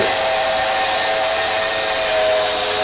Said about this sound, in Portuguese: Tá chegando o trem, está né? é, saindo o trem já. Tá saindo.